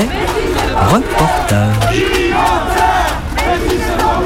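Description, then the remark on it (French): A protest crowd chanting and shouting at a demonstration in the Guille neighbourhood for the rights of undocumented migrants (sans-papiers), many voices overlapping in a loud, steady roar, with a brief low sustained tone rising out of the din partway through. “Alors moi je suis là parce que j'habite dans les quartiers à 50 mètres de cette manifestation et moi je me bats pour les droits des sans-papiers, des gens qui habitent dans ces quartiers depuis, c'est pas 10 ans, hein, c'est 100, ans, 200 ans”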